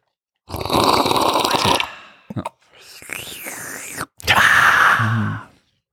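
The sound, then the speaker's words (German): Drinking: noisy slurping gulps of water with a few short wet lip smacks in between, ending in a loud breathy gasp. No talking. “Ja, ne, Schmatzen im Podcast, immer, immer gern gehört.”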